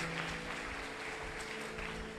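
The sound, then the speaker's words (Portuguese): Audience applause for God, called for during a sermon, fills the whole stretch: a dense, steady wash of many hands clapping at an even loudness, with a faint sustained low hum beneath and no one talking. “Aplaude ele por isso.”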